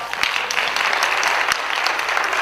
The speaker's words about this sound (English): Give her a round of applause, y'all.